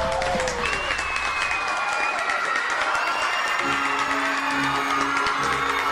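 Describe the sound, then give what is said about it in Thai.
A large crowd of animals cheers and claps loudly as a zebra beats a cheetah to the finish line of a race, a dense, continuous roar of many voices and hands that holds steady for the whole stretch, with a low droning tone joining partway through. “ขณะที่เสือชีตากำลังเร่งฝีเท้าอย่างเต็มที่ ก็ได้ยินเสียงของสัตว์นั้นร้องชัยโยชัยโยกึกก้อง”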